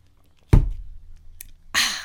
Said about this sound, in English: Thank God I have an iced coffee from McDonald's. We are ready to go. Hold on, let me take a sip.